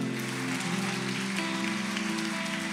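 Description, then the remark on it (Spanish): An audience at a church service applauds for Jesus in a steady, dense wash of clapping that holds an even level for a few seconds, with a sustained low musical tone humming underneath. “¿Por qué no le das un aplauso a Él?”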